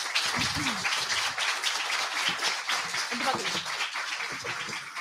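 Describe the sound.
Steady audience applause fills the whole stretch, a dense, even wash of many hands clapping, with a few voices calling out underneath.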